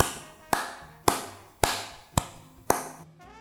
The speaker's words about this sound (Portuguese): … acaba de ser distinguido com o prémio Borrachão de Ouro pela Associação das Adegas Cooperativas do Baixo Alentejo. Uma salva de palmas.